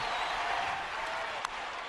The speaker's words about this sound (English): Listening to that crowd.